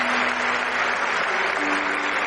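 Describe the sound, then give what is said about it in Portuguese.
An audience at an evening worship service applauds steadily to welcome people who came forward to accept Jesus, a dense, sustained wash of many hands clapping at once, fairly loud, with a faint low tone humming beneath it. “Vamos aplaudir.”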